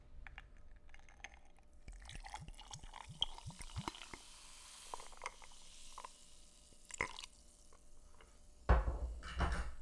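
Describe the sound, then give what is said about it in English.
A drink being poured into a cup, a quiet, steady trickle with a few small clinks and taps, ending with a louder clatter of handling. “All right, they're both poured.”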